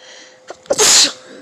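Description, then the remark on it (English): A single loud sneeze: a quick sharp inhale followed by a bright, hissing burst lasting about a third of a second, with no talking. “Ooh, I had to sneeze”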